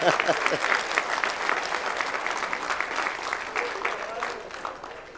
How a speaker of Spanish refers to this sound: Dale un aplauso a Cristo, amén.